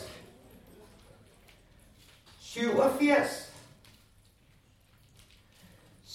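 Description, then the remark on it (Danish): A brief clatter of small orange plastic bingo pieces rattling together for about a second, with a voice calling out bingo numbers against quiet ambience. “Kun oplæsningen af tal og lyden fra de små orange brikkers raslen kan høres.”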